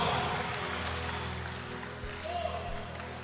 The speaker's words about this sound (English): put your hands together and give the lord a shout of praise for such a powerful testimony as we clap our hands